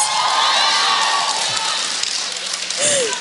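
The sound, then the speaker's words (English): A large live crowd claps and cheers loudly, a dense wash of applause with scattered whoops and shouts rising above it, sustained throughout without letting up. “Clapping for somebody else's money.”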